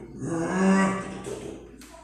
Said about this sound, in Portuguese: Né, num determinado momento da volta lá, na estrada de chão de terra, passando por uma fazenda lá, nós né, começamos a escutar os bois.